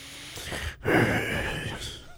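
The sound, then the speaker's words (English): A man imitates the heavy breathing of an old man in a sauna, a loud, drawn-out breathy exhale after a brief pause, clear, no words spoken. “he's just like heavy breathing.”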